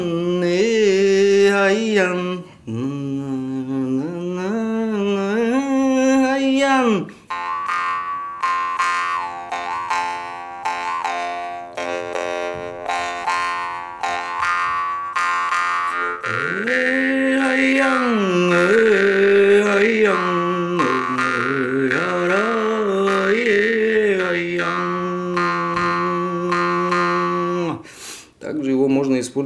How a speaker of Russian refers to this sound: он выдает одну ноту, а, одну тональность, но за счет э, вот этих обертонов можно делать целые мелодии. Если вы обратили внимание, я сейчас играл э, такой народный напев, мотив